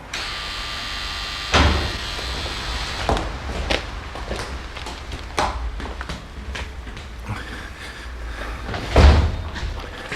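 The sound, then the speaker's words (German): A door slams shut with a heavy, booming thud, followed by scattered knocks and rattles, then a second loud slam near the end. No one speaks. “Das war Tür Nummer eins, aber wichtig ist Tür Nummer zwei.”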